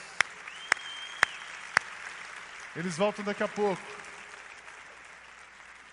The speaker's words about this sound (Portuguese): Pode aplaudir. Obrigado.